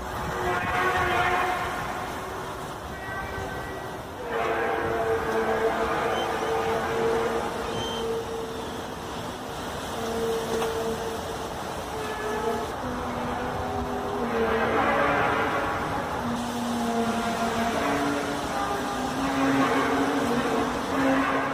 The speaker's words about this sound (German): hört man ein wahnsinnig metallisches und lautes Dröhnen, was direkt aus dem Himmel zu kommen scheint. Mhm. Also das sind wirklich immer dieselben Aufnahmen. Und wie sich das anhört, hören wir jetzt mal kurz.